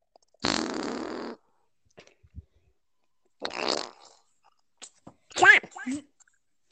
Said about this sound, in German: Oh, mein Kollege hier, der kann jetzt mit Furz nicht mehr reden. Schade drum. Ich mochte. Aber so war die ganze Zeit Furz ist, glaube ich, so ein bisschen unvorteilhaft.